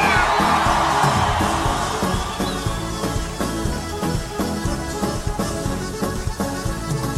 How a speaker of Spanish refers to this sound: Que siga la fiesta. Vamos, le queda fuerza para un grito de victoria.